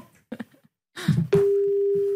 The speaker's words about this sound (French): Attention parce qu'il y a quatre sonneries. Hein. S'il répond.